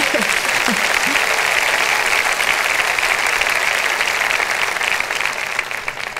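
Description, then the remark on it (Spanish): A church audience breaks into sustained, dense applause, a steady wash of many clapping hands that holds for about six seconds before starting to thin out toward the end. “me aplaudió. ¿Por qué me aplaudió?”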